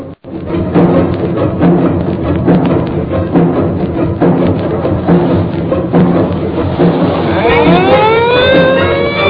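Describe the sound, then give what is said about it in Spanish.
An ambulance's loud engine rumbles steadily, and near the end its siren starts wailing in rising, sweeping tones as the vehicle pulls away. “Ya se va la ambulancia.”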